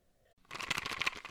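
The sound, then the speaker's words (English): A strawberry-flavored Eu Natural Conception for Her fertility-aid gummy is crunched and chewed, a brief quiet moment giving way to a second of rapid, moist crunching bites, fairly soft overall with no voices. “Do you hear that? That is the sound of the brand new and delicious Eu Natural Conception for Her in their juicy strawberry gummy flavored oh my, this is now my favorite thing to take.”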